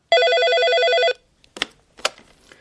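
A telephone rings with one steady, bright electronic trill lasting about a second, a call received six days before a court hearing, followed by a few short clicks and clatters, like a handset being picked up.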